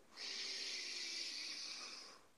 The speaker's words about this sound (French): On va prendre une respiration ensemble et faire un home. Alors, inspirez au maximum.